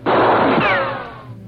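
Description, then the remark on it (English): A single loud gunshot bursts out, trailing into a long, rough, rumbling echo with a thin whining tone sliding through it as it fades. No voices. “As he walked with head held high, the first shot shattered the air.”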